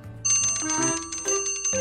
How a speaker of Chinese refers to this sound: 午饭的铃声一响，大家都走了，我待在座位上，紧张的胃都打了结。